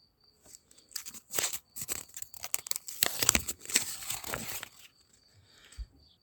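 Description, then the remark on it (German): A paper slip with a word written on it is pulled from a small bowl of slips and unfolded: several seconds of irregular, crisp rustling and crinkling in quick bursts, moderately loud, with no one talking. “Da fischen wir eins raus und reden ein paar Minuten drüber.”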